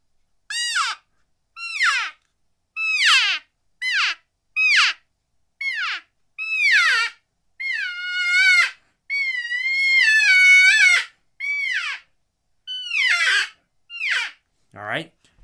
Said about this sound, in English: But you can hear that. This is the thing about a uh, bite and blow style call like the cowgirl. It, it, they all they all have that inherent, almost like bird like uh, quality.